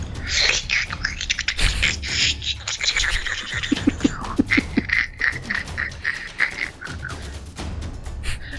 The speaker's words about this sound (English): and you can hear the sound as she struggles to slide the bottom bolt, then the key lock.